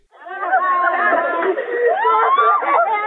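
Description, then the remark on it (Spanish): Relatives wail and cry out in grief after a clash at a women's prison in Honduras, several anguished voices overlapping in a continuous, loud chorus of sobbing and shouting with no distinct words. “Gritos de dolor de familiares tras un enfrentamiento en una cárcel femenina de Honduras.”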